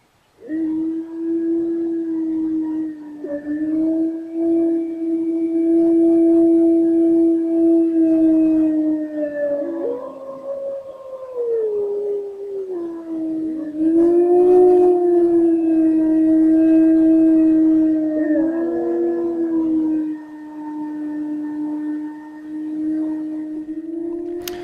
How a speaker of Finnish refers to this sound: Jorma Seppänen tallensi öistä susien ulvontaa Kuhmon vartiuksessa. Tätä voi kuunnella Yle Uutisten verkkosivuilta ja se on myös kerännyt paljon klikkauksia sosiaalisessa mediassa.